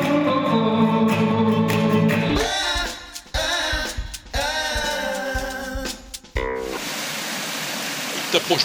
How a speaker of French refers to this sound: Bon, là, c'est un petit filet d'eau, d'accord, mais quand il pleut, ça doit devenir un vrai torrent.